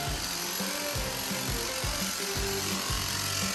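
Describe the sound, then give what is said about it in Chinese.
A power saw grinds steadily through a concrete floor slab in a search-and-rescue training drill simulating a clean cut, its loud motor drone pulsing in rough, repeated strokes with harsh gritty noise across the whole clip, no voices. “他们现在在训练的项目是模拟所谓的干净切割。”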